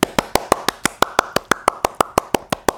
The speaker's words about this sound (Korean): 어, 면접 보고 가시는 중이니까, 음, 좋은 결과가 있기를 제가 박수 한번 보내드릴게요.